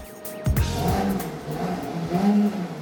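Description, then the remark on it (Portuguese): A vintage-styled sports car that reaches 100 km/h in 4 seconds revs loud on its normal exhaust setting, its throaty growl rising after a brief idle, then holding and swelling again in a steady, rumbling drone with no voices. “Esse é o ronco tradicional do ronco carro. Ronco normal.”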